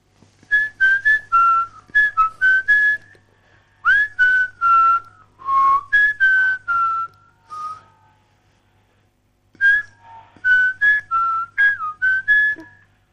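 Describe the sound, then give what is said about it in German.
A person whistles a melody in a series of short, bright tonal notes and brief phrases, pausing midway before resuming, with a faint low hum beneath. “das kann ich eigentlich überhaupt nicht pfeifen, aber ich versuche es trotzdem mal.”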